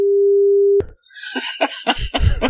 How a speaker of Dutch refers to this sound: die, zit er, die, die zit er dus ineens een piepje in het gesprek. En mensen denken: wat de fuck zei die dan?